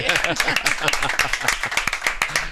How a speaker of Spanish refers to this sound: Podemos aplaudir, ¿eh? Podemos aplaudir.